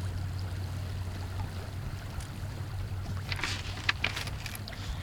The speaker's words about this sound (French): Le remous des vagues et la tangaison du navire me rendent zen.